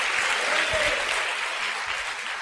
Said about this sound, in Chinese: 给自己一个热烈的掌声，好不好？